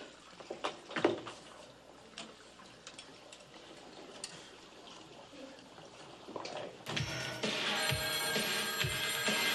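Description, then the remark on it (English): Clattering and rustling handling noises give way to a telephone ringing as a call is placed to friends in Chicago, a steady, bright, fairly loud ring that continues through the final seconds with no talking. “Uh, let me give them a call.”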